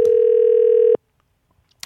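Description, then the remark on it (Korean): A steady electronic telephone ringback tone of an outgoing call, placed on the radio show Lee Eun-ji's Gayo Gwangjang to a listener at a post office in Mapo-gu, drones for about a second, then cuts off abruptly, followed by near silence and a faint click near the end. “전화 한번 걸어볼게요.”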